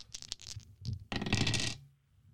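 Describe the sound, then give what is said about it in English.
Three dice, rolled all at once, clatter onto a hard tabletop: a few quick clicks followed by a louder rattling tumble that settles after about a second, fairly loud with no talking. “I'm going to roll all the dice at once, and then just read off what they get.”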